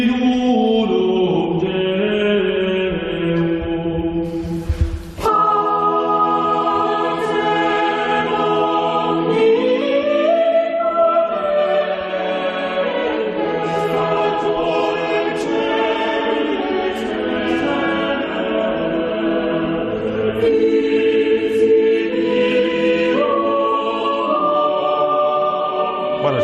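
A Renaissance polyphonic choir sings the Latin Credo of Pierluigi Palestrina's Mass of Pope Marcellus, several voice parts weaving sustained, overlapping lines in full, resonant harmony at a steady, moderate loudness throughout, with no talking over it.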